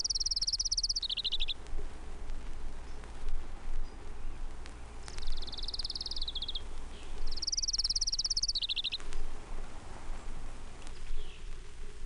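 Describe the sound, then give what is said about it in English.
A Townsend's warbler sings three high, buzzy phrases that rise then drop in pitch, spaced a few seconds apart, over a steady low outdoor hum with faint insect or frog chatter. “Townsend's Warbler.”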